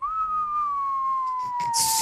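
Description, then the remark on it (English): A person whistles one long, steadily descending tone, mimicking the sound of something falling through the air, with a breathy rush of noise near the end. “You know the noise when something's falling, the whistle?”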